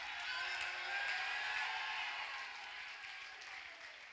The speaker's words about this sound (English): Open your mouth and give him a shout of praise. I want to hear a war cry at the anchor.